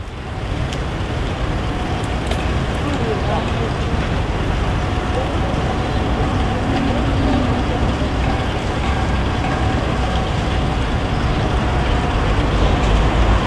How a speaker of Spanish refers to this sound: Si ponía atención, vaya a escuchar de fondo una fuente de agua. ¿Dónde es esto? Te presento la Plaza de Armas de Santiago sin gente.